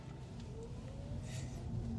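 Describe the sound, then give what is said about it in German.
An electric car pulls away with a thin, rising motor whine over a steady low rumble, with a brief airy hiss midway and no one talking. “Absolut unmännliches, elektrisch fahrendes Auto.”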